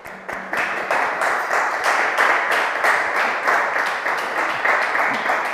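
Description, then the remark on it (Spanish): An audience breaks into sustained applause for mothers who have stood up, many hands clapping in a dense, steady wash that starts abruptly and holds at a loud, even level throughout, with faint voices mixed in. “Así que se ponen de pie y les vamos a dar un aplauso para ellas, por favor.”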